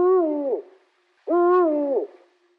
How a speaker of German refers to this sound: Es handelt sich hier um den Uhu. Brutbestand von ungefähr 3000 Brutpaaren in Deutschland und seit den 90er Jahren zum Glück stetig mhm. steigend, bewohnen vor allem Steinbrüche in Deutschland, weil sie sind Felsenbrüter